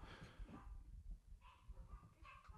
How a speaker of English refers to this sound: My dogs are barking.